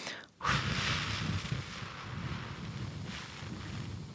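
A long, steady breathy exhale pushed out through narrowed lips as a voice exercise, as if through a small narrow tube, a soft continuous hiss lasting several seconds after a brief pause, with no talking.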